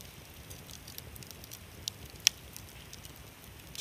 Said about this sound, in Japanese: 今パチパチとハゼるキャンプファイヤーを見ていますいやの音も光もほっとしますね。